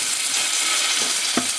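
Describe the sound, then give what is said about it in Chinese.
Salmon sizzles as it is pan-fried without oil, searing its fourth side, a steady, bright crackling hiss that holds evenly throughout, with one brief soft knock near the end and no voices. “好，那我再煎我的第四面，就可以准备把它放上来。”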